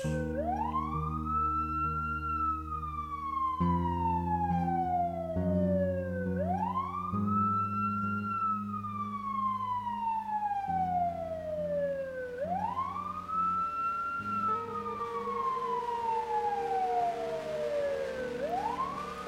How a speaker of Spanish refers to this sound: Las sirenas volvieron a reverberar por las calles, los pasos de botas corriendo, gritos, llamados.